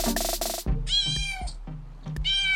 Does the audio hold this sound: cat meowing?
yes